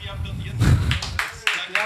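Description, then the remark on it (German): A short burst of applause: a handful of sharp hand claps at an uneven rhythm, moderately loud, over a low background murmur. “Applaus.”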